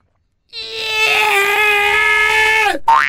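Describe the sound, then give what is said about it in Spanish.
A person imitates a cat in heat with a long, loud, wailing yowl that holds steady and then drops sharply, followed by a brief rising cry after a short break. “Un gato en celo ese Vienen acompañados de las brujas.”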